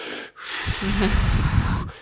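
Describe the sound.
A man demonstrates slow, rhythmic breathing done along with another person: a slow, deep breath ending in one long, loud, airy exhale that lasts over a second. No talking.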